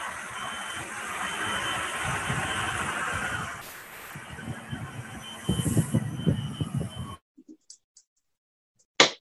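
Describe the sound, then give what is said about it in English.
A fire truck rumbles past outside, a loud, steady roar of engine and road noise that surges, fades, and cuts off abruptly, followed by brief faint clicks and a final thump. “Okay, the fire truck is here.”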